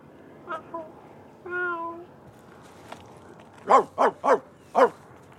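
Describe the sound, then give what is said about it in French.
A person mimics a cat, starting with a few soft tonal mews and a drawn-out meow, then four loud, short, strained calls in a quick burst near the end. “Vas-y, fais le chat.”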